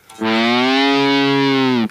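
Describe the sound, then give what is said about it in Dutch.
A distorted electric guitar holds one loud, steady note for under two seconds, played to imitate a horse in a farm-animal sound guessing game, with a slight pitch bend at the end and no voices. “Dat is duidelijk een paard.”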